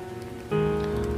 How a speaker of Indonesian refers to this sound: Namun hujan tak peduli, dan ia tetap turun. Tidak berhenti hanya karena beberapa orang tidak suka.